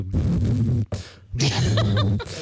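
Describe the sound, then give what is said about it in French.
A person vocally mimics the buzzing wing vibration a male fly makes to court a female, in a few bursts, fairly loud, with a breathy, buzzy texture and a short gap between. “Alors, figure-toi qu'on a déjà des bons micros pour euh, pouvoir écouter la, sexualité des mouches, puisque euh, le mâle séduit la, femelle en faisant vibrer ses ailes euh, et ça fait un bruit comme ça...”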